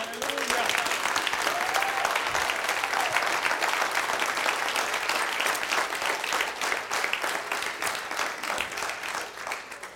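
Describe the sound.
Loud, sustained applause from a large church audience after a sermon, given to the preached word: dense clapping fills the whole stretch, with faint voices or cheers mixed in before it tapers slightly at the end.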